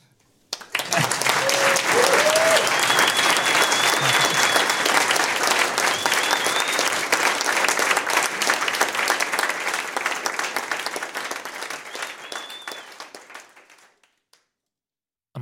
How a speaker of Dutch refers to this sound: En ja, in een ideale wereld, ja, misschien een, een applaus voordat we de knop afzetten.